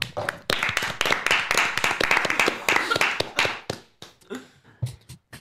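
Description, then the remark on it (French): A studio audience bursts into applause for performers after a song, dense rapid clapping at full volume for several seconds, then thinning into a few scattered, sharper claps as it dies away. “Et on peut vous applaudir.”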